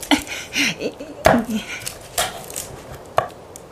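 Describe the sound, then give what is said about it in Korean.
A mother's knife chops on a cutting board while preparing frozen pollack (dongtae), with sharp thwacks, five or so strokes falling at an uneven pace about a second apart, with faint kitchen clatter underneath. “동지섯 딸 칼바람이 휘몰아쳐도 어머니의 칼질은 멈추지 않았다.”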